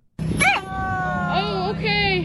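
A beached whale howls in a string of high, wavering moans that rise and fall, three or four drawn-out cries over a steady low background hum.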